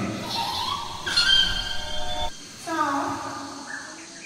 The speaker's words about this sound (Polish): Radośnie podśpiewują ptaszki.